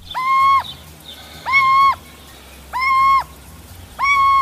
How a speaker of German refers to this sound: Die Geräusche der Eulen waren so laut, dass die Nachbarinnen dachten, in der Nähe wäre bei einem Einbruch eine Alarmanlage angegangen.